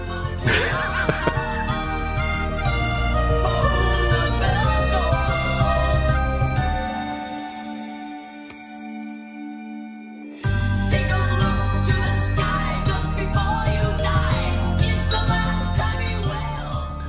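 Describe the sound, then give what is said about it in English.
A jingly, bell-laden carnival tune with a carousel feel, bright tinkling melody over a steady bass, dropping to a thin sustained tone midway before the full music bursts back in. “And it reminds me of like a child's carousel, circus, carnival, bell theme song.”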